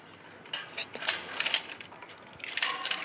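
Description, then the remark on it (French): A bunch of at least 35 keys jangles in irregular bursts of bright metallic clinks, some sharp and loud, others softer, as the keys are shuffled and tried one after another to unlock a big door of a house. “pourquoi j'arrive pas à je sais pas, il y a au moins 35 clés dans ce machin. Et euh, je me trompe toujours de clé.”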